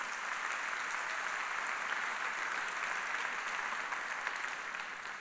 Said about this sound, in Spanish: Date un aplauso, gloria a Dios. Date un aplauso.